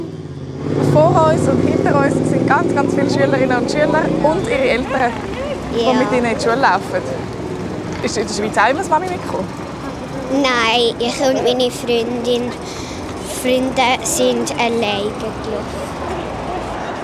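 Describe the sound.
Steady roar of heavy car traffic on a motorway below, heard from a motorway bridge in New Zealand, a continuous rushing drone under conversation between an adult and a child walking across the bridge on the child's way to school.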